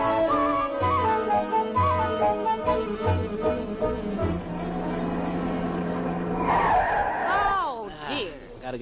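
A car rumbles along, then its brakes let out a loud, drawn-out squeal with sliding, wavering pitch as it grinds to a stop.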